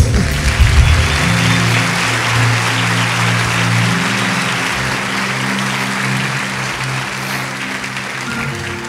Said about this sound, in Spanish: Vamos, denle un aplauso.